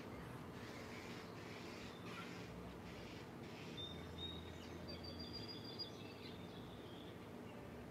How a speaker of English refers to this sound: I wish that crow would leave those fucking sparrows alone so they'll shut the fuck up.